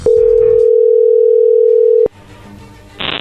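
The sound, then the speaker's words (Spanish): A loud, steady telephone dial tone on a phone call with a very bad signal holds for about two seconds, then cuts off abruptly, followed by faint line noise and a brief burst of static. “Cuélgale, cuélgale, se oye muy mal, márcale de nuevo. Tiene muy mala señal.”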